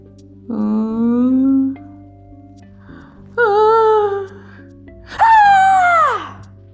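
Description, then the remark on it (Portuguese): Three drawn-out, inhuman wailing howls from a bricked-up tomb, each rising higher in pitch than the last, loud and mournful with short pauses between them and no talking. “Prolongado e alto, anormal e inumano. Um urro, um guicho lamentoso, cheio de horror e triunfo, como só do inferno se pode erguer das gargantas dos danados na sua agonia e dos demônios na danação.”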